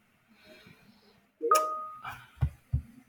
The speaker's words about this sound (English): sorry uh, uh, relentless teams notifications but they are hopefully they aren't too loud for us that was just one that popped up um, it's closed but somehow it still returns